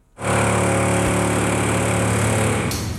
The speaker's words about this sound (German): Das Einkaufszentrum Neuwiesen ist unüberhörbar ein Baustelle.